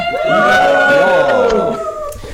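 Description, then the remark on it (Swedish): A live audience at a live recording cheers and whoops, with several sustained, howl-like voices overlapping loudly for about two seconds before fading slightly at the end. “Där är vi och vi har en liveinspelning med publik. Får vi höra publiken?”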